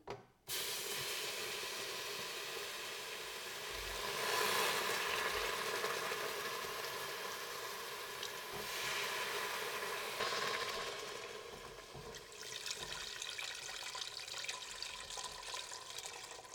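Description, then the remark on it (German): Water is poured into a hot pan, setting off a loud, steady sizzling hiss of steam that lasts about sixteen seconds, swelling a couple of times before easing slightly. No voices. “So, jetzt werde ich es schon aufgegessen, weil das geht dann sehr schnell hoffentlich ohne daneben schütten.”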